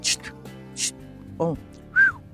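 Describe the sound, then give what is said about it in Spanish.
A voice imitates bird-like whistling with a few short breathy hisses, a brief voiced chirp, then a clear rising-and-falling whistle tone, moderately loud with no words spoken. “Y qué otra cosita, pero también va acompañado de silbidos o de sonidos como de...”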